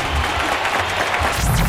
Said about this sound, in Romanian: încă o dată, aplauze Academia Română, vivat Academia, vivat profesores, încă o dată Mulțumim foarte mult!